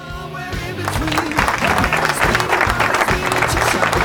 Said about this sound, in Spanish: Un aplauso, un aplauso para Lucky Luke que volvió.